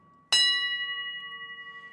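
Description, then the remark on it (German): A single bright strike of an old tram bell, ringing out with a sharp metallic clang and then a long, shimmering, slowly fading resonance that wavers gently as it decays. “Das ist eine typische Altwagenglocke.”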